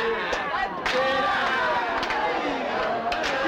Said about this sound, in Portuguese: Vamos sair um pouco daqui, meu amor. Tô sufocando no meio dessa multidão.